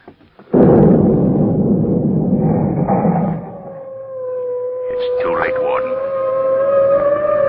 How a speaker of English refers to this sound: The rest of the guards on this side must have been knocked off in the explosion.